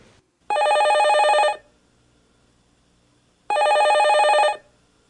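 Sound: telephone ringing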